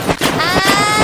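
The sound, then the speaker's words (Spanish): A voice imitates a wet, slapping splash, like sandals smacking through heavy rain, with several loud, breathy bursts in a quick uneven rhythm over a hissing, spluttering tone. “sí, se escucha como splash, como un splash, Es como cuando está lloviendo bien brutal y vas en chancleta, así que suena así.”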